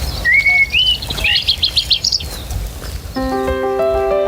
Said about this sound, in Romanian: Prin pădurile răcoroase cu arbori remarcabili, poți observa urme proaspete de cerb sau urs și poți desluși graiul păsărilor, care nu contenesc triluri fermecător.